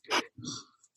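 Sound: a sneeze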